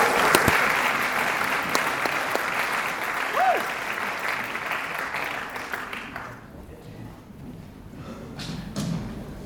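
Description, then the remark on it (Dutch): A crowd's applause at City Life Church Rotterdam, a dense wash of clapping that holds steady for several seconds before thinning out and fading to a few scattered claps, with a brief whistle partway through. “Staat er Rotterdamse applaus, jongens, ja?”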